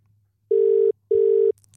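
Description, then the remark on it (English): A telephone ringing on an outgoing call: one double burst of steady electronic ringback tone, two short even pulses with a brief gap, clear and fairly loud over a faint low hum, with no talking. “It's ringing once.”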